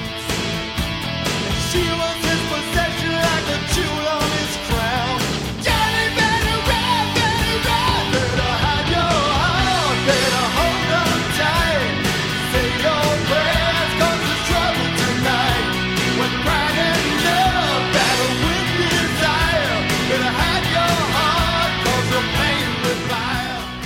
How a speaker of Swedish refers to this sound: …… från 1989 låter så här.